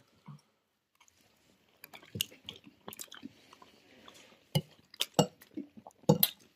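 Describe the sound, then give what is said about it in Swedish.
People chewing food, eating isterband sausage, with irregular crunchy, moist bites and mouth sounds growing busier over a few seconds, mixed with occasional light clinks of cutlery; nobody speaks. “Ska vi ta och hugga in då?”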